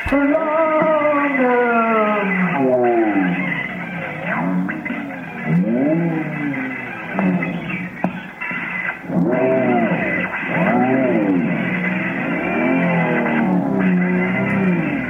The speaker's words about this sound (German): einfach auf dem Tonbandgerät gespielt und per Hand zurückgespielt.